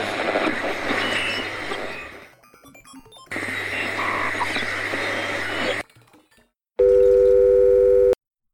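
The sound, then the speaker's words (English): Two long bursts of harsh, crackling static on a phone line are followed by a brief quiet gap, then a loud, steady electronic dial tone that drones for about a second and a half before cutting off, as a caller's call to a live radio call-in show drops. “Alright, we lost that call.”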